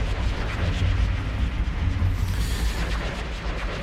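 A minimal techno track plays steadily in the background of a radio programme, dominated by deep, rumbling bass pulses and a dense low-end throb, with hazy textures above, at an even, moderate level and no voices.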